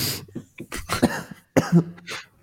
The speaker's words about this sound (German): Ja, die ganze Zeit husten, ohne sich zu muten.